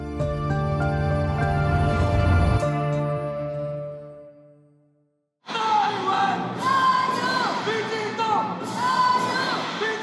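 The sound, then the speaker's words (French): A sustained tonal musical passage fades out into a brief silence, then a loud, dense crowd erupts in cheering, with overlapping shouts and rising whoops, at a Democratic Progressive Party (DPP) rally in Taipei, Taiwan, on Saturday 13 January, where supporters wave hundreds of small pink and green Team Taiwan flags. “La foule est survoltée à Taipei et agite des centaines de petits drapeaux roses et verts sur lesquels on peut lire Team Taiwan, le slogan du Parti démocrate progressiste, le DPP.”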